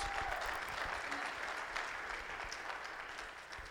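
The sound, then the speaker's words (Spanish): An audience at a Spanish-language church sermon applauds steadily as praise to God, the dense clapping at an even level for several seconds with a faint murmur of voices underneath. “Dale el aplauso, se lo va a dar a Dios.”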